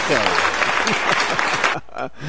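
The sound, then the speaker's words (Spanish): A burst of dense, loud applause for a musician and his band fills the first couple of seconds, with voices calling out over the clapping before it cuts off abruptly into quieter chatter. “¡Aplausos para el señor”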